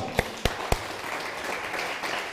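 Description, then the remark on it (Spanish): A few sharp, loud claps ring out first, then an audience's applause at the end of a talk swells into a steady, dense wash of clapping that continues to the end. “Aplausos bien fuerte.”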